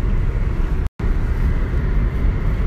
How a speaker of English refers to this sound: I'm in the car at the moment.